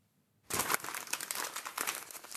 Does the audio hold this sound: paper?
yes